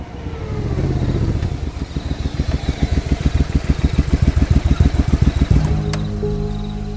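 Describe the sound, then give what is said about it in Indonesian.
A motorcycle engine runs with a low, throbbing idle that shifts into a rapid, pulsing rev for several seconds before settling back to a steady rumble, as riders set off for a factory warehouse around 5 pm. No one speaks. “Nah, sehabis latihan kira-kira jam 5 sore, kami pun langsung OTW ke lokasi gudang pabrik tersebut naik motor.”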